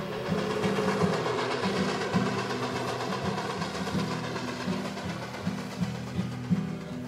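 A train rolls steadily along the rails with a continuous low rumble and a dense mechanical roar, punctuated by periodic clacks of the wheels passing over track joints, with no voices.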